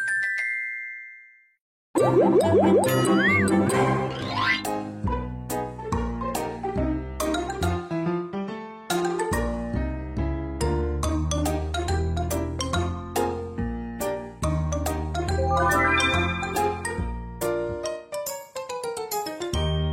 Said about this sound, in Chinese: 哇，缤纷的铁琴完成喽！它叮叮咚咚的声音清脆响亮。